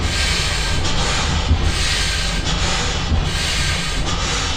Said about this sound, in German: Was da so schnauft, ist eine Dampfmaschine und die ist sozusagen der Soundtrack des frühen Kapitalismus.